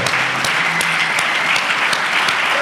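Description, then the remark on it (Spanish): Sustained applause for the audience who came to the venue for a live recording, a dense steady wash of many hands clapping at an even loudness throughout, with no voices standing out above it. “Yo me puse de pie para aplaudirles a ustedes.”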